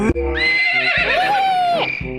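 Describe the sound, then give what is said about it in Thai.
A toy horse named Dicky, jumping out of a gift box in a dark bedroom in a story, whinnies loudly, one long quavering neigh lasting about two seconds that rises and then trails off, with no talking over it. “และแล้วก็มีม้าของเล่นตัวหนึ่งกระโดดออกมา”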